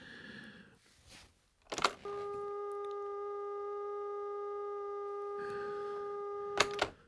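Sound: telephone line tone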